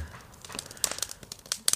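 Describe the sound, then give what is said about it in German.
Irregular sharp pops and crackles of a small fire burning, scattered unevenly over a soft background hiss with no talking. People are sitting by the fire in about 26 °C warmth with greenery all around. “Ach, wie schön wäre das, wenn man das Knistern hört.”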